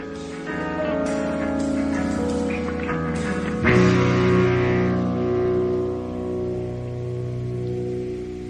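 A band's studio demo recording, made at Great Northern Studios in Boston on July 13, 1976, plays steadily, with full sustained guitar and keyboard chords, a driving beat, and a bright cymbal crash partway through; loud, with no talking.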